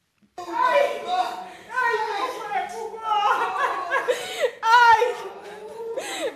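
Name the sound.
people crying and wailing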